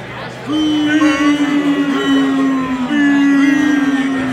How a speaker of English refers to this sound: Oh no, yes, I couldn't finish and I'm getting booed. Oh, where have we heard that one before?